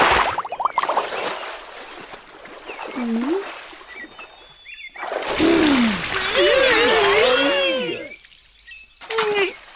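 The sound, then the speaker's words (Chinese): A loud, hissing splash of water from a dive bursts out twice, the longer second splash mixed with high, excited squealing voices that rise and fall over the spray. “好好的被溅了一身。”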